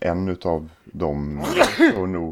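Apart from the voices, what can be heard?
sneeze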